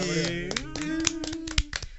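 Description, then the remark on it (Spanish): A few people clap their hands in quick, uneven bursts while a voice sounds steadily underneath the applause. “Un aplauso, un aplauso.”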